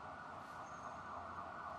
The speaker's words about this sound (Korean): 나는 버려진 영화 촬영장을 방문한 손님처럼 첼시 마리나의 입구에 서서 킹스로에서 들려오는 아침의 차량 행렬 소리에 마음을 안정시켜주는 자동차 라디오와 구급차 사이렌의 곡조에 귀를 기울였다.